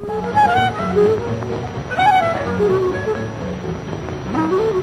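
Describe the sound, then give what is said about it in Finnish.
Old-fashioned jazzy accordion background music from a black-and-white 1950s Finnish advertisement, reedy melodic lines over a full, steady accompaniment, playing continuously at moderate loudness with no voices. “okei mä sanon hanurimusiikki, no jatsia”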